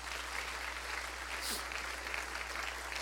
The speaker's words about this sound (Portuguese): Podemos aplaudi-lo mais uma vez.